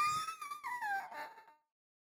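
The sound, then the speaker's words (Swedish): A frightened puppy whimpers in a single high, thin whine that slides downward in pitch for about a second and a half, clear, then fades into silence. “Anledningen varför en valp blir så rädd av det här, just det här ljudet, det är lite som varför en, en, en katt blir rädd för en gurka.”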